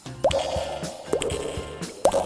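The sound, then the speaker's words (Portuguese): Water drips steadily from a leak in a cave, three distinct plopping drops landing about a second apart, each with a short echoing tail, and no voices. “Elas chegaram a uma gruta que tinha uma goteira muito irritante.”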